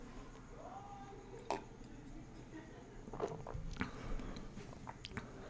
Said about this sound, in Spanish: Le voy a dar otro traguito a mi té.